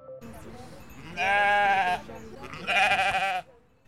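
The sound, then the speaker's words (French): Sheep from a flock of 12 in the Beaujoire floral park in the city of Nantes bleat twice in a row, each loud, wavering call lasting under a second, against a low background murmur. “Au parc floral de la Beaujoire, à quelques minutes du centre-ville de Nantes, les gens se surprennent de voir un troupeau de moutons.”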